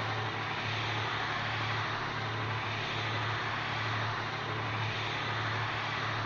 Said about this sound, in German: Ich glaube, es funktioniert. Da ist unsere Musik und da ist unser Hubschrauber. Was für ein wunderbarer Sound zusammen.